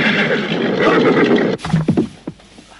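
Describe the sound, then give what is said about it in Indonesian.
A loud, rushing burst of noise cuts off abruptly, then a ridden horse being brought to a stop lets out a short, shaky neigh with a few quavering rises and falls. No one speaks. “Uh, Mengapa Paman menghentikan kuda saya?”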